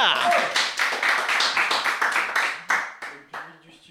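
Studio audience applause for a contestant coming up to do an imitation: a burst of many hands clapping in quick, dense rhythm, loud at first, then thinning into a few scattered claps as it fades out.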